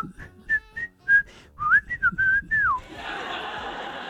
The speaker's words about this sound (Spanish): Em, que sale una especie como de Mickey Mouse, que no es Mickey Mouse. Mucha gente piensa que es Mickey Mouse. Pero no es Mickey Mouse, aunque se parece a Mickey Mouse. Pero no es Mickey Mouse. Bueno, sale ahí silbando